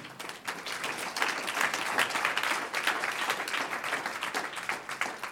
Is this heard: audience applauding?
yes